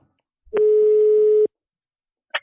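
A single steady telephone ringback tone sounds for about a second while a call is being placed, followed by silence and a brief faint click at the end. No one speaks.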